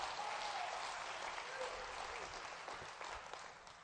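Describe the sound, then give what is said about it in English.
An audience claps for the Lord during a sermon in a dense, steady burst of applause that holds fairly level and starts to taper toward the end, with a faint voice briefly audible beneath it. “Give a Lord a hand clap.”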